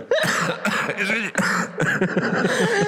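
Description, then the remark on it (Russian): A loud coughing fit: several raspy, voiced coughs follow one another in quick bursts over a few seconds, with a hint of throat clearing and no talking. “Всегда начинаю кашлять в этот момент, знаешь.”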